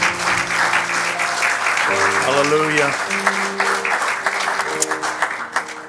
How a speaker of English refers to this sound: Amen. Give the Lord a hand of worship this morning.